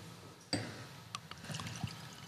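A 0.5% alcohol IPA beer glugs from a just-opened bottle into a glass, starting with a sharp splash and then burbling and gurgling unevenly for about two seconds, moderately loud, with no voices.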